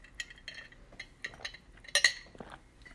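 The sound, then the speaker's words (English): A glass of water being handled and sipped from: several light, high clinks and taps spread out, a louder cluster of clinks near the end, with soft mouth sounds and no talking. “Let me take a sip of water really quick.”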